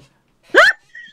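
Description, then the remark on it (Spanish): A chair gives one short creak that rises sharply in pitch, followed by a faint thin squeal and a quick knock at the end. No one is talking. “Se va a ver, ¿suena tu silla? Ya no. Ya no suena la Mira, sí suena, mira, mira.”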